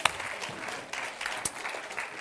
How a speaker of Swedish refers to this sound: Fantastiskt, ska vi ge dem här en stor applåd till?